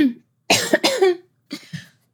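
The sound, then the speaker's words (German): A man standing upright clears his throat, acting it out: a gravelly rasp followed by a shorter, softer second clearing after a brief pause. “Und da er wirklich nur das Beste für sie will und er sieht, wie ernst es ihr ist, willigt er dann tatsächlich ein, stellt sich aufrecht hin, räuspert sich”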